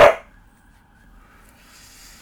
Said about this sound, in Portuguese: A Manita tá latindo.